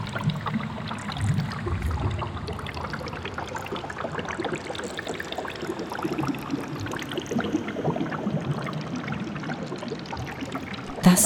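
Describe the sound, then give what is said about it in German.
Water pours and flows steadily for the whole stretch, a dense, continuous splashing and trickling with a brief louder gush near the end. No voices. “war bald allen klar, dass der Regen durch die neuen Öffnungen ins Erdreich eingedrungen war und nun dort die Gänge und Räume langsam, aber stetig unter Wasser setzte.”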